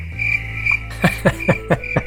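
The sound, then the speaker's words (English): A cricket sound effect: a steady high-pitched trill, then about five sharp chirps at an even, quick pace. It's clear, with no talking over it. “Joke's on you, I was talking, so there's no crickets. There is always a cricket.”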